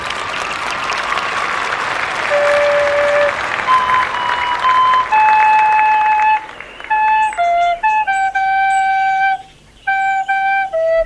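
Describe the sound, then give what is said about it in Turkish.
Loud, dense applause from an audience fills the first half, with a few high whistled tones over it, then fades as a thin recorder melody of separate notes takes over, as a young satyr character plays his song on a recorder in a staged music contest with Apollo. “Alkışlıyoruz.”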